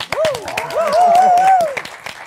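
A crowd applauds with a steady patter of many hands clapping, while voices call out and talk over the clapping for the whole stretch.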